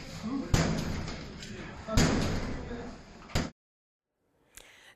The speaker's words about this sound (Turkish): Belediye ekipleri boşaltılmayan bazı dairelerin kapılarını koçbaşıyla kırarak tahliye etti.